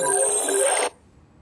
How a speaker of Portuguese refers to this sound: O telefone estava em modo avião. Tocou, olha, misericórdia.